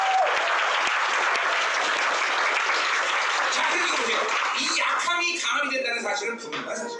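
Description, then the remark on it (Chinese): An audience applauds to thank God, a dense wash of many hands clapping at steady loudness for several seconds, with voices and cheers rising through it toward the end as the clapping thins slightly. “哦，我来鼓掌感谢神好吗？”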